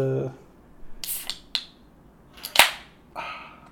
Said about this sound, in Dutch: Imperial Cerveza Especial. minimaal 473 kubieke centimeter. Nee, dit is wat te lastig. Ik ga hem gewoon openen.